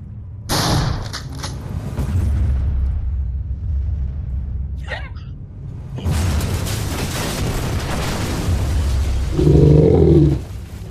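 A loud dynamite blast set off to blow up a tunnel bursts out, followed by a long, rumbling roar with crackling debris, then a second heavy wave of rumble and a low tonal hum near the end. No one speaks.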